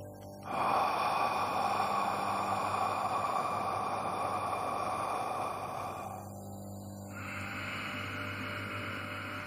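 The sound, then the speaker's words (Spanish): A long, loud breath drawn in through the nose for several seconds, a brief pause, then a steady breath pushed out through the mouth, with no talking: one cycle of pranayama breathing. “una inhalación por la nariz y una exhalación por la boca generando así un ciclo en el que vamos a respirar durante tres minutos.”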